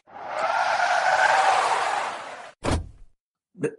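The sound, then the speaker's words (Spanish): A taxi's tires screech loudly for about two and a half seconds as it skids to a stop after being hailed, followed by a heavy thud and a short, fainter bump. “Eh, no perdamos más tiempo. ¡Taxi! ¡Taxi!”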